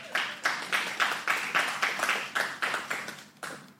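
An audience applauds, many hands clapping in a steady, rhythmic beat of about three claps per second, bright and fairly loud throughout, with no voices over it.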